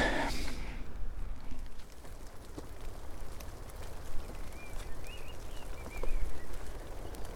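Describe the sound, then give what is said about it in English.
Strong coastal wind roars steadily across the microphone, a low rumbling buffet that swells in gusts, with a few faint, high bird chirps briefly audible through it. “It's getting pretty windy on the coast now, so I'm not sure how much more recording I'll be able to do.”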